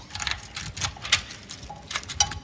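Keys jangle and clink in short metallic bursts as they are used to unlock a chapel door, with a few brighter chinks as they shake, over a low background rumble.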